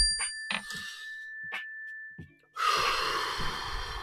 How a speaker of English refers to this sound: Mindfulness, let's just take a mindfulness breath really quick. When you hear the bell, please take a deep breath. Ready?